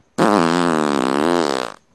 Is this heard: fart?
yes